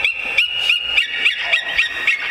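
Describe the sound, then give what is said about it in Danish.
A large bird of prey gives a rapid, steady series of thin, high-pitched calls, about three per second, fairly loud and clear with no talking. “Jeg synes jo nemlig, det er sådan en fin stemme til sådan en gigantisk fugl.”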